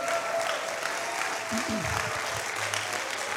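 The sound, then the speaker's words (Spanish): An audience applauds loudly and steadily when a preacher calls for a loud round of applause, a dense, unbroken wash of clapping lasting the whole moment, with a voice briefly surfacing beneath it partway through. “Dale un aplauso fuerte.”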